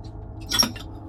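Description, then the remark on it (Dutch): An old glass lamp clinks and rattles once as it is handled, a short bright chime with a faint scrape, over a low, steady hum. “Ah oh, alsof pas op dat hij oh. niet valt, Dat is wel van glas.”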